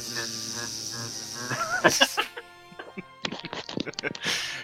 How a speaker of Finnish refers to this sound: kyllä on ihan semmoinen autenttinen, että on varmaan käyty jossain mehiläispesässä nauhoittamassa sitä